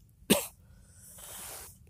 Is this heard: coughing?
yes